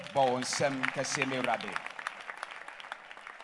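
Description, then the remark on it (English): A crowd claps their hands for the Lord in a dense, continuous patter of applause, with loud voices calling out over it at first before the clapping carries on alone and slowly thins. “Clap your hands for the Lord.”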